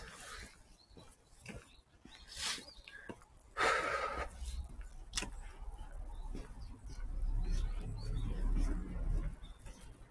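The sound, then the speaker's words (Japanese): A bird calls a few times outdoors in a quiet woodland, short scattered chirps over rustling, crackling footsteps and a low, steady background rumble. “鳥か。鳥だった。”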